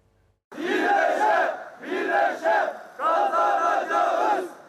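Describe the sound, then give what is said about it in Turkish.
A large crowd of Türk-İş trade union members in Turkey chants slogans in unison, protesting over severance pay, loud, in three rhythmic bursts separated by brief pauses, voices rising together with a forceful, shouted cadence. “Ben de o arada izleyicilerimizle Türk İş ve sendikalar, sendikalar nasıl itiraz sesini yükseltiyor onu aktarayım sizlere.”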